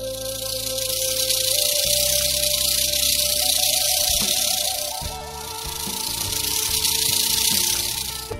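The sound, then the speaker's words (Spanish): A rattlesnake's dry, hissing rattle buzzes loudly and steadily for several seconds, dipping briefly midway, over a low musical backdrop of sustained tones. “la víbora que llaman de cascabel.”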